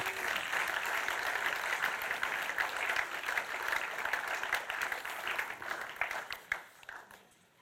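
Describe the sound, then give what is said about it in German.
A crowd applauds the mothers steadily with dense, overlapping claps for several seconds, then the clapping thins to a few scattered claps and fades out. “Gebt ihnen doch nochmal einen Applaus”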